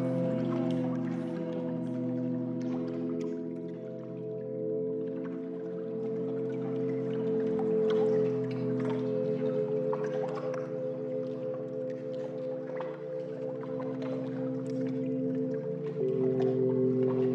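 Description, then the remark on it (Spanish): Soft, scattered drips and gentle lapping of water in a warm-water pool where people float in complete silence, steady, over a low continuous hum, with no voices. “Salas con cuencos tibetanos, meditación guiada, espacios para dibujar o escribir en diarios, y hasta una pileta con agua tibia donde la gente flotaba en completo silencio.”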